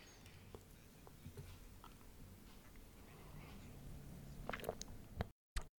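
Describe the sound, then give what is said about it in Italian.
Quiet slurping sips of hot herbal tea with soft wet mouth sounds, building to a few sharper sips near the end over a low, muffled background hum. “Allora, questo è il suono della tisana.”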